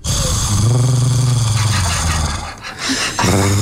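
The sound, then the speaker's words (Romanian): A person imitates a cat's purr with a loud, low, rattling rumble that runs steadily for about two and a half seconds, breaks off briefly, then returns. “aș vrea să torci ca ciubaca, te rog frumos.”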